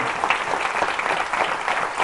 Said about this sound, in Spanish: Queremos darte otro aplauso fuerte en el nombre de Jesús. Fuerte, fuerte.